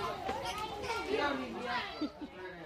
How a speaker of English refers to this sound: behind you there's two, three kids making lots of noise